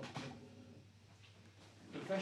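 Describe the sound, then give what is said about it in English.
A door swings shut with a short, muffled thud, followed by quiet rustling and handling noises, with faint voices murmuring in the background. “Should we shut door? Hold on. We'll shut door.”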